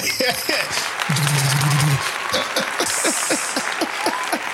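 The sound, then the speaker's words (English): A crowd applauds with a steady wash of clapping, overlaid with scattered voices and cheers. A low hum briefly sounds partway through. “Hold the applause.”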